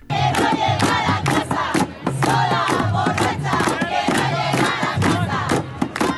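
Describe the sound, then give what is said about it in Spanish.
A large protest crowd chants loudly in rhythmic unison at the International Women's Day demonstration on 8 March in Plaza Universidad, Barcelona. Voices rise together in repeated bursts, with sharp percussive accents cutting through the steady roar. “Oye, mira, aquí estamos, en Plaza Universidad, eh, en la manifestación del Día Internacional de la Mujer, hoy 8 de marzo.”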